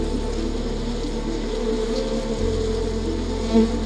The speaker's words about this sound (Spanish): Imaginen una colmena inmensa, rodeados por el suave zumbido de estas fascinantes criaturas.